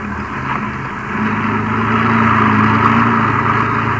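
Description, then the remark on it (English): A car engine drones steadily as the vehicle drives over rough ground around cottonwood trees, a low rumbling hum with gritty noise that swells a little louder partway through. No one speaks. “you better drive around the cottonwoods and have a look”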